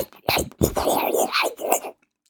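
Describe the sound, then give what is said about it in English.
A voice imitates a warbly, watery digital artifact, the residue heard in a null test of lossy audio encoding, with breathy, hissing, scratchy bursts in a rough burbling rhythm for about two seconds, moderately loud, then stops. “So when you do the null test, what you hear is everything that has been discarded yeah.”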